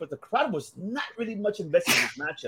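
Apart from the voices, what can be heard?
sneeze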